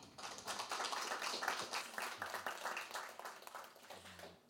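An audience applauds steadily, a dense crackle of many hands clapping at a fairly even level for several seconds, with no talking.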